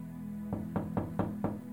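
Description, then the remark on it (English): Five evenly spaced, firm knocks on a wooden door over a low steady hum, with no talking. “He's knocking.”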